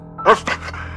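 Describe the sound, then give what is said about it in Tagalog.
A dog, Melody, now a stray, gives two quick, high whimpering yelps in front of a house, the first louder, followed by softer breathy sounds that fade over a low steady hum. “Pagdating sa tapat ng bahay, ay sinalubong sila ng asong si Melody na ngayon ay isa ng gala.”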